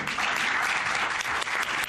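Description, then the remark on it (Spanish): Steady, dense applause from many people in a parliament chamber, a continuous crackling patter of hand claps at an even, fairly loud level throughout, with no voices standing out. “Entre aplausos ya lo escuchan,”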